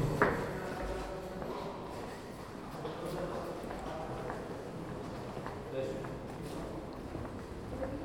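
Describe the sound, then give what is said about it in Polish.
Footsteps walk out of an elevator into a busy, reverberant space, with steady steps heard over a constant murmur of background voices and ambient noise. “Wychodzimy z windy.”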